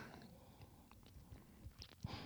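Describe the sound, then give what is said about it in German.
Soft chewing of a crispy seaweed snack, with faint, light crunches scattered irregularly over a couple of seconds, quiet and muffled rather than sharply crisp. “Und es knuspert nicht so schön. Und das muss es aber ja auch nicht. Nur ganz leicht.”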